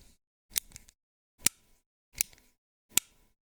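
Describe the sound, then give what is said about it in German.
Four crisp pen clicks at a slow, slightly uneven pace as a person fiddles with a pen while concentrating, each a sharp mechanical snap with a small rattle after it, separated by silence and with no voices. “einem Stift rumspielt”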